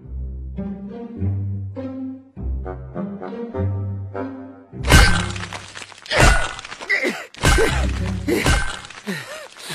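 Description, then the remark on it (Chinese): A few low, sustained musical tones give way to a burst of loud, sharp crunching blows, a hammer chipping at ice to make a hole for fishing, struck several times in quick irregular succession with splintering cracks, leaving only a small pit. “搞了半天才弄出这么个小坑，怎么钓鱼啊？ 这什么东西啊？真没用！哎呦，这锤子，”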